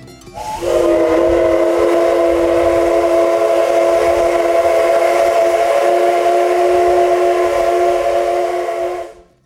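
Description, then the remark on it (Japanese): A single sustained whistle of the Deko-ichi (D51) steam locomotive, sounded softly as a weak whistle with a breathy onset, holding a steady chord of tones for about eight seconds before cutting off, with a faint hiss underneath. “ここで紹介しますのはですね普段めったに聞くことができないですね弱い汽笛 ね強い汽笛は誰でも聞いてもこれはね今日はラッキーだったなと思う瞬間を紹介しますけどデコイチの汽笛弱”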